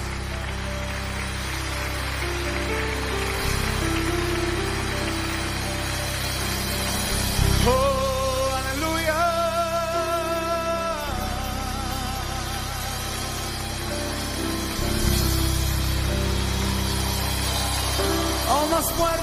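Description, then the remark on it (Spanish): A crowd claps steadily in a dense, continuous wash of applause that runs the whole time, with sustained musical tones and a voice rising briefly above it midway. “Vamos, dele palmas, dele palmas.”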